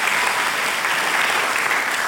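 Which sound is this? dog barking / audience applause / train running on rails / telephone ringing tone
audience applause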